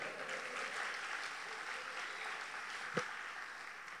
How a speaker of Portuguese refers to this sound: Quantos querem prosperidade e um futuro? Dá um glória a Deus e aplaude o Senhor aí por isso, de mais uma vez.